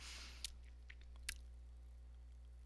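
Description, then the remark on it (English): Faint chewing as a person hard chews the corners of their mouth while thinking: a few soft, wet clicks and smacks, two more distinct than the rest, spaced irregularly over a quiet, steady background hum, with no talking. “I'm chewing my corners of my mouth cuz I'm like thinking.”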